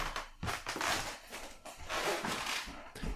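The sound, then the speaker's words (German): Creaking sounds as someone walks away: a string of irregular, scratchy creaks and soft footfall thumps, fairly quiet and steady over a few seconds, with no voices. “Meine Damen und Herren, äh, Sie werden es gerade knarzen gehört haben.”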